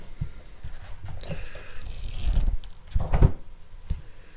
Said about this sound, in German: Heute mit dem Buch, was wir schon mal hatten, äh, von Gerhard Riesch, Homöopathik, die Heilmethode Hahnemanns. Blättern wir mal wieder.